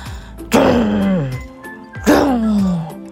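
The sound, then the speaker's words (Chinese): Someone imitates an angry elephant protesting through its trunk with their voice: two loud, strained cries, each starting high and sliding downward, separated by a short pause. “大象生气的用鼻子发出抗议的声音。”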